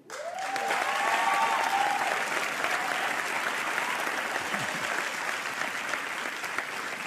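A crowd breaks into sustained applause, a dense, steady wash of clapping that starts abruptly and holds at a loud, even level throughout, with a few brief whoops early on.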